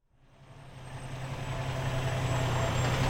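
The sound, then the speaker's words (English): A heavy truck engine rumbles as it approaches at the Scranton Army Munitions Plant in Pennsylvania, a factory making howitzer shells, swelling from quiet to a steady, loud low drone with a thin high whine riding on top. No one speaks. “So we'll bring the steel in, obviously, uh, by truck or by rail.”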